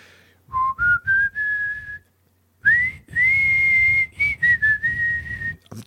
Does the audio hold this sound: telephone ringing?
no